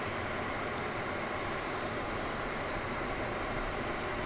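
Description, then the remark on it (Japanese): A car heater fan starts blowing once the engine has warmed up, in a car at a self-service gas station: a steady, continuous airy whoosh filling the cabin at an even level from start to finish, with no voices over it. “暖房のファンがね回り始めました”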